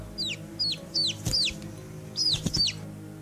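baby chick peeping

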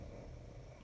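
dog snoring

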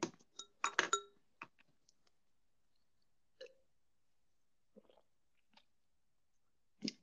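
wine glasses clinking

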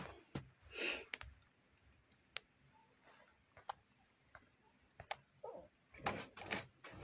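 door being opened

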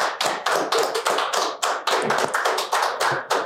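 round of clapping

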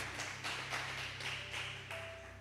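audience applause

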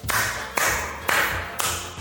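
hand clapping

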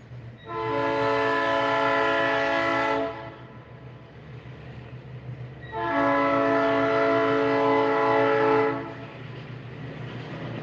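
passing train with horn

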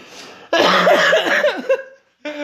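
heavy coughing

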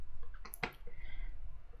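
computer mouse click

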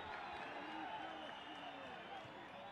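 football fans cheering

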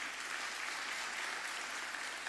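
audience applauding

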